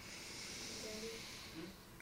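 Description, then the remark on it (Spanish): A single long, deep breath drawn in through the nose during a conscious breathing exercise, a steady soft airy hiss lasting about two seconds, quiet, with no talking. “O sea, por ejemplo, ahora mismo nos podemos tomar un minuto de inhalen”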